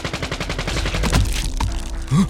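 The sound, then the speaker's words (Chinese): Rapid bursts of gunfire from outside a house crackle in a fast, irregular volley of sharp reports, followed by a heavier thump and a brief low-pitched sound near the end; no one speaks. “当我再次抬起头的时候，发现原来枪声是来自屋外的。”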